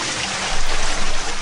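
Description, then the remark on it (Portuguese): A bucket of water is poured out in one continuous gush, loud, swelling slightly midway with a splashing, churning texture before tapering off. “Então, um balde de água fria para ver se acorda.”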